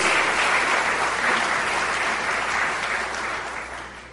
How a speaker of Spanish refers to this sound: Gracias Dios Todopoderoso. Este aplauso es para ti, Padre.